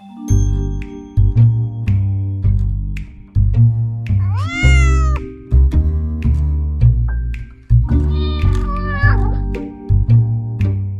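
A cat meows twice, a drawn-out cry near the middle and another toward the end, both sitting clearly over steady, rhythmic background music with no one talking.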